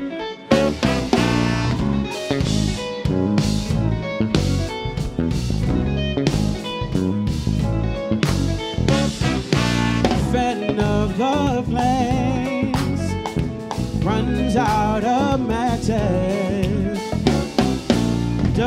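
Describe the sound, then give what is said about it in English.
A live band plays a song at a loud, steady level, with punchy drums driving a dense mix of guitars and other instruments and melodic lines weaving through. No one talks over it. “You are currently listening to …. Next up, we have their song, ….”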